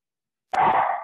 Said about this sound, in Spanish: Sí, ¿y tu perro? Oye, este perro está loco, vale.